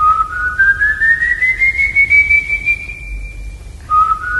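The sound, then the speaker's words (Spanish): An eerie whistled tune attributed to a legendary ghost of the plains of Portuguesa state: one long, slowly rising whistle that sustains for several seconds, breaks off, then resumes on a lower note, loud and clear with no talking over it. “Su historia explica que cuando el silbido se escucha.”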